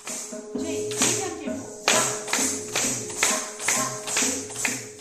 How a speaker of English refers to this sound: Kathak is a rhythmic barefoot dance full of elaborate footwork and spins. And you hear that jingling? That's the sound of ghungroo. Long strands of bells Kathak dancers wrap around their ankles.